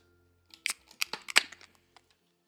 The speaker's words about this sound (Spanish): Bueno, destapemos la HB.